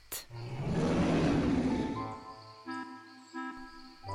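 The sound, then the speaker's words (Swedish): A huge beast at a lake lets out a deep, rumbling roar that swells loudly for about two seconds, then fades into a few softer tonal sounds. “Men just när de skuttade som mest hördes ett vrål som verkade komma från en väldigt stor bäst.”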